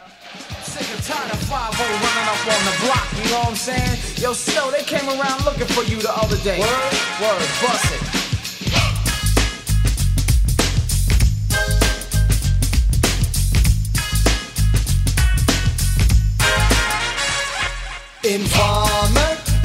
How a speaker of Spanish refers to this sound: Vamos a escuchar la primera canción